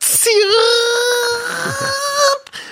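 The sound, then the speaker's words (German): A voice imitates a strange noise made by a cooktop, a loud, sustained nasal whine lasting about two seconds, wavering briefly at the start before holding a steady pitch and cutting off. “Allerdings macht es auch ja. komische Geräusche dabei”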